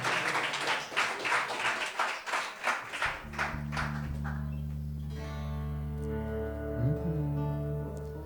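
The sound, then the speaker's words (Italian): Steady, rhythmic clapping from a group applauding the musicians runs for about three seconds, then fades as sustained musical tones, a low drone with higher held notes, take over. “farei ancora un applauso ai miei fantastici musicisti che mi sostengono sempre.”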